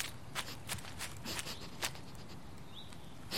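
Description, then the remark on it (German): Soft, slow, cautious footsteps of a young fox crunch on damp, cool forest ground, five or so light steps at an uneven pace, followed by a brief faint bird chirp in the quiet background. “Vorsichtig wagt er die ersten Schritte auf dem noch feucht kühlen Waldboden.”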